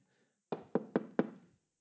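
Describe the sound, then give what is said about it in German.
Four firm knocks on a wooden door in quick, slightly uneven succession, clear, with nothing else audible around them. “ich stehe schon an der Tür, ich klopfe an.”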